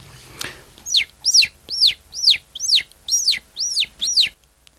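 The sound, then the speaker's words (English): A voice imitates a chicken clucking, with about eight quick, high, rising-and-falling clucks in a steady rhythm, fairly loud, with no talking over them. “I can, I can start uh, with a, a chicken sound. It goes like.”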